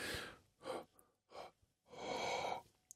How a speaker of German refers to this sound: Ich da reinatme, da irgendwas passiert. Oder wenn ich so Ah, tief schnaufe, tief und Leidenschaft.